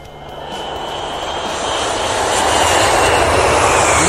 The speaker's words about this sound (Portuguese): E claro, a gente não podia deixar também de, de começar o nosso programa, né? Pegando o nosso avião, primeiramente.